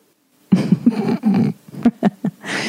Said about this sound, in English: Do you hear my kid screaming in the next room?